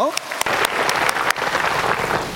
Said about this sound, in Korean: 예, 우리 박수로 환영해 드리죠.